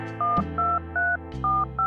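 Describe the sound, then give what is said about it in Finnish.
Keypad tones as the Turku number of Finland's National Bureau of Investigation (keskusrikospoliisi) is dialed: five steady two-pitched beeps in an even rhythm, each lasting about a fifth of a second, loud and alone with no talking. “Näpyttelin keskusrikospoliisin Turun numeron ja tiedustelin tilannetta.”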